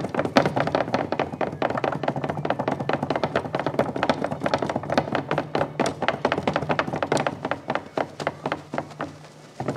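Rapid, uneven hoofbeat thuds for running Chinese elk (milu deer) keep up a galloping patter, dozens of hollow knocks and taps over a low steady hum, with no voices.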